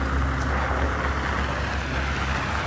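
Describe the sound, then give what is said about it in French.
Steady, loud rumble of 4x4 vehicle engines with a deep low hum and broad road noise as the off-road trucks carrying men roll in. No one speaks. “ensuite, les hommes arrivent avec les 4x4.”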